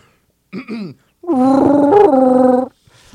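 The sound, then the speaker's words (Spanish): A person vocally imitates Chewbacca's growling roar, as in an audition: a short rising growl, then a longer, louder wavering roar held for over a second. “Y que la gente decida cuál chubaca es el que se va a quedar.”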